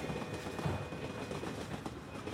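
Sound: train running on rails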